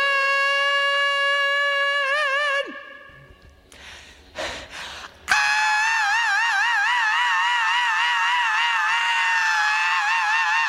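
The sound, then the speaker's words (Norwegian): A male singer holds a piercing high note with wavering vibrato, breaks off with a sharp breath, then launches into an even higher, louder falsetto scream sustained to the end. “Altså, men han går liksom ikke opp i falsetten før på det siste skriket der.”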